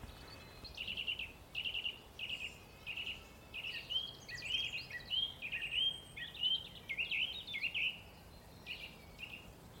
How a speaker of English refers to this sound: song thrush play us out actually.